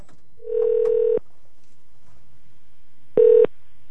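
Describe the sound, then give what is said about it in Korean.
Telephone dialing and ringing tones over a phone line as a Kookmin TV quiz program places a phone-a-friend lifeline call to a union member: a steady electronic tone lasting under a second, a pause, then a shorter burst of the same tone, with no one speaking. “연결해 보도록 하겠습니다.”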